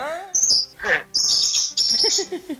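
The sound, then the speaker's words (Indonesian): A neighbor's pet bird chirps loudly and busily in shrill high trills that come in bursts, nearly continuous, with faint background sounds underneath. “Burung tetangga atau oh, berisik banget.”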